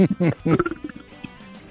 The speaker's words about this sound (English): okay, okay, you need to stop burping.